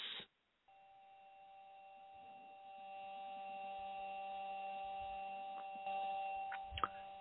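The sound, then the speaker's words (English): The Perseverance rover driving over rocky ground on Mars on Sol 16: a steady, grinding mechanical whine, with a background hum from its electronics and high metallic squeals, clicks and scrapes as its aluminum wheels encounter rocks. Continuous, with no voices. “This is the sound of the Perseverance rover on the surface of Mars in Sol 16 just a few days ago.”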